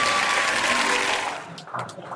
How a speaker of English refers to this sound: We can, we can, we can clap.